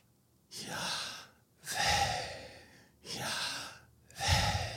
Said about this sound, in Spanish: Aún el mismo nombre de Yahvé ah, o el yo soy que, Dios le da a, a Moisés eh, pues ¿quién digo que me envió? Dice, yo soy. Y, eh, realmente es el, sonido de inhalar y exhalar.